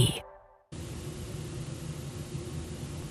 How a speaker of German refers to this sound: Dieses Rauschen ist das ARD-Studio in London.